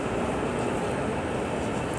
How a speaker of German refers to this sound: Wir jetzt laufen im Hauptbahnhof. Genau, wir laufen jetzt gerade durch die Tür in den Hauptbahnhof rein, äh, hoch zur S-Bahn.